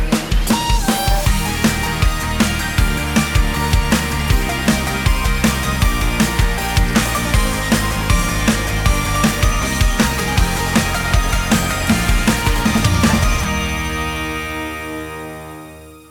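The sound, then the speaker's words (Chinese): An upbeat pop theme song, a remade version made for TiMi Studio's fifteenth anniversary, plays on the radio station HFM Asia Music with a steady, punchy beat and a bright full-band mix, then ends on a sustained chord that rings out and fades over the last few seconds. “刚刚这首歌是来自于天美工作室十五周年，好想说台庆十五周年庆的这个主题曲翻新版本的”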